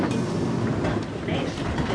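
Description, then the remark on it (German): A subway train rumbles and clatters steadily along the rails, a dense, continuous roar with rhythmic clacking underneath and no voices. “Die beiden schlängeln sich aus der U-Bahn, springen die Treppen hinauf und eilen durch die Stadt.”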